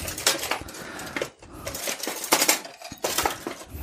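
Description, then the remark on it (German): A potato masher works food in a metal pot, with a run of uneven clanks and scraping thuds as it presses down again and again, crushing the food into a coarse paste. No one speaks. “Ich werde es jetzt erstmal, ich habe hier so einen, ähm, so einen Kartoffelstampfer.”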